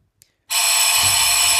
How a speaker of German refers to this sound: Weißt du jetzt, was ich meinte, mit, als ich sagte, wenn du die, wenn du die Tür Türklingel hörst, weißt du, was du hörst? Das ist eine Türklingel.